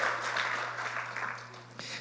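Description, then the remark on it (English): A crowd applauds steadily in praise of the Word of God, many hands clapping together in a dense, continuous wash of sound that holds at an even level for a couple of seconds, with a low electrical hum underneath. “I absolutely love the Word of God by a show of hand clapping praise.”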